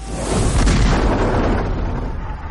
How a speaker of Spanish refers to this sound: Los cañones tronaban, las astillas volaban por doquier, las velas eran agujereadas, se escuchaban gritas al valor y otras de desesperación